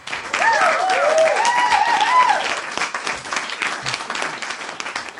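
A burst of recorded applause played in, dense and steady clapping that starts loud and gradually thins out, with a few faint cheering whistles near the beginning.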